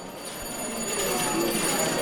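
A theatre-style electric bell rings continuously for a couple of seconds, a steady buzzing ring at moderate loudness heard amid noisy, echoing surroundings, signalling that a film screening is about to begin.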